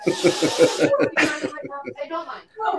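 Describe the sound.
Close, loud sniffing: a rapid run of short breathy inhales, then one sharper sniff, followed by a person talking quietly.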